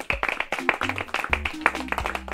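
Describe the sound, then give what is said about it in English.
A brief round of applause from a small group during a quiz: quick, overlapping claps for a couple of seconds, fairly loud, with some voices or cheering mixed in underneath. “Can we give me a round of applause for not messing up the pronunciation of those similar words?”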